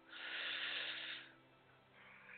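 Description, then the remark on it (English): A long, airy breath drawn in through the nose during a guided breathing exercise, a steady hiss lasting about a second, then a softer, fainter breath sound afterward; quiet with no talking. “Let's inhale.”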